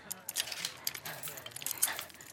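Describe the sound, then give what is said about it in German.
A bunch of keys jangles in a steady stream of bright metallic clinks and rattles for a couple of seconds, with a faint low voice murmuring underneath. “Auch einen weiteren Schlüsselbund nahmen sie mit.”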